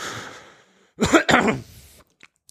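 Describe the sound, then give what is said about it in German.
A person clears their throat, two quick raspy bursts following a faint breathy lead-in, then a couple of tiny clicks before silence. “ich muss kurz ab, hier ein bisschen mich räuspern.”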